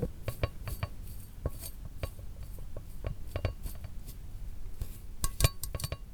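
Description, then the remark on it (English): A small sample of sand-sized shells pours from a small glass onto a table in a studio, a steady gritty trickle broken by many light clinks and ticks of grains against glass, busier toward the end, with no one talking. “Should we try to put it into the table and, and look at it?”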